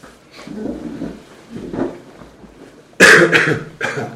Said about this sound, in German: Oh, das hat man jetzt aber gehört. Wir husten uns jetzt einmal zurecht.